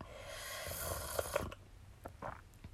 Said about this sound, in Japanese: コーヒー飲むわ。失礼します。